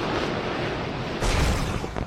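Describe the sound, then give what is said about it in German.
A fighter jet explodes in a cloud of green fireworks: a steady, roaring rush of noise erupts into a louder, deep rumbling blast about halfway through, then breaks into crackling bursts. No voices are heard. “Der Düsenjäger explodierte in einer Wolke grünen himmlischen Feuerwerks, gefolgt von einem Fallschirm, welcher den Piloten sicher zur Erde sinken ließ.”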